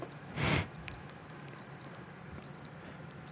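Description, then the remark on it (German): Crickets chirp in short, high-pitched pulsed bursts repeating roughly every second, fairly faint over a quiet background hiss, with one brief soft rustle near the start. “Das Grillen hat man gehört.”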